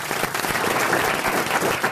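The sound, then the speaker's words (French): An audience of the RTL show Les Grosses Têtes applauds Marc-Antoine Lebret steadily, a dense wash of many hands clapping at a fairly loud, even level throughout, with no pauses and no voices standing out. “On peut applaudir Marc-Antoine Lebré, évidemment.”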